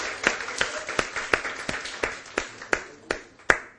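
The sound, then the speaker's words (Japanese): An audience claps together for Jesus after a prayer, in a steady, even rhythm, about a dozen sharp, loud beats over a bed of softer scattered clapping, with no one speaking. “ハルヤ、もう一度イエス様に拍手を送ります。”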